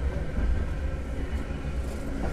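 Steady low rumble and rolling hum of a Keifuku Electric Railroad Mobo 101 type tram running on rails from Arashiyama toward Katabiranotsuji, with a faint hiss above and no voices.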